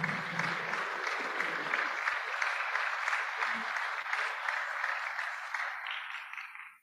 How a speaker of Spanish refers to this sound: Y por ello quiero felicitar a los gestores del proyecto, jugadores, solicito un aplauso al cuerpo técnico y dirigentes.